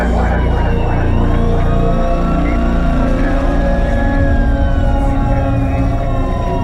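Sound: ambulance sirens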